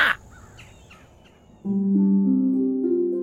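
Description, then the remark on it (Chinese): Crows caw a few times, short harsh calls in a quick series, faint and rough, before a louder steady droning tone swells in and holds to the end. “那当然，并不是所有的动物都能像我们乌鸦一样多姿多彩的。啊啊！”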